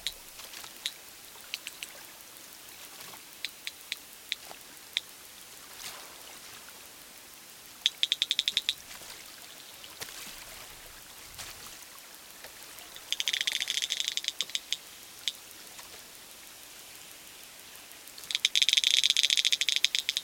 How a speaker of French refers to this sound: Et un peu de cachalot pour finir, parce que les cachalots, c'est rigolo.